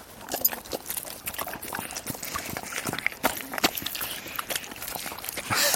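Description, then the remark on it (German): Wet, irregular smacking and chewing from huskies eating a meal of roe deer, red deer, oat flakes and pasta from bowls, a busy stream of sloppy clicks and slurps with no voices. “Das hört man richtig, das Schmatzen hier.”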